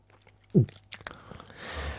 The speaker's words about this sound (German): aber du müsstest aufhören mit diesem Schlucken, ja.